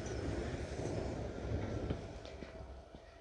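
A train rumbles past, a steady low roar with faint rhythmic clacks and brief metallic ticks, gradually easing off toward the end.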